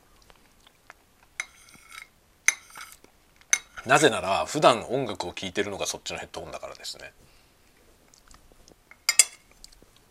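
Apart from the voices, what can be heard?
cutlery and dishes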